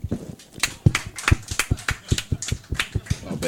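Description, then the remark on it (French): Scattered audience applause answering a question, asked by applause, about who has been told off by Mathieu Boudreau: a few people clapping in a loose, uneven rhythm, each clap sharp and crisp, steady for a few seconds at moderate loudness with no voices over it. “Eh, hey, par applaudissement, qui ici s'est déjà fait envoyer chier par Mathieu Boudreau?”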